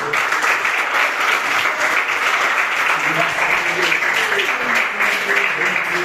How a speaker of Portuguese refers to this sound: Então, as palmas que louvem ao ah, Senhor Jesus. Amém.